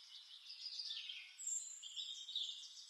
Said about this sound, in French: écoutez, qu'est-ce que vous entendez Des oiseaux.